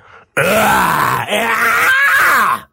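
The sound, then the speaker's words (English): A loud monster-like growl made by a human voice, a rough, strained exhaled vocal roar sustained for over two seconds with brief breaks, sounding like a creature snarl. “So inhaling doesn't hurt your cords as much as an exhale sound?”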